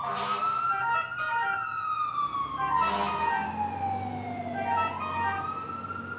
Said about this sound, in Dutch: Vicky ziet dat zijn vriend een helm opzet, een zware jas aantrekt en op de achterbank van de ladderwagen klimt. De chauffeur start de motor, zet de sirene aan en rijdt de kazerne uit. Langs Vicky.